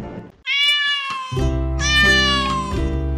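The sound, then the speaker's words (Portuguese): Two drawn-out cat meows, loud and close, the second overlapping a lower, rumbling second cat's yowl, with the cries sliding downward in pitch and no speech. “os gatos parceiros do pessoal da escola Máximo começaram a acessar. Já pensou? Miau para todo lado.”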